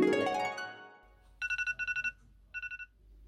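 A sharp electronic morning alarm beeps in quick pulsed bursts, two groups of rapid high tones after a brief rising musical swell, clear with no one talking, ringing in the day before a school day on Monday 8 February 2021.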